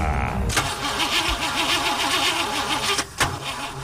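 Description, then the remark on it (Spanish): The president's armored limousine, in Madrid, cranks with a steady, rhythmic starter whine, then turns over with a couple of sharp mechanical clunks. It is fairly loud, with a dense rumbling background. “Vaya necesita una revisión, pues como Biden.”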